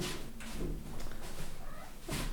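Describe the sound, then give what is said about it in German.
Someone rummages through a drawer, with a few scattered knocks and scrapes over about two seconds and a sharper clatter near the end, no talking. “verschwindet gerade kurz und kramt und die Katze kommt rein.”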